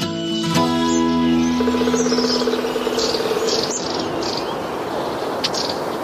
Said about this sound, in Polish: wydaje mi się, że mówimy tutaj o takim ptaszku, który nazywa się raniuszek